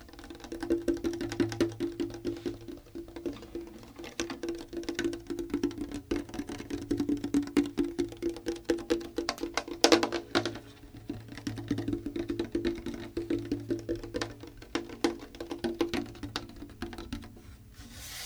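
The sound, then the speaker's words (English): Fingers tap rapidly and continuously on the hollow wooden body of an acoustic guitar, a 1968 Harmony Sovereign, with fast irregular knocks ringing with a low resonant boom. It carries on steadily for the whole stretch, fairly loud, with no voices. “don't you just tap on the body for us a little bit”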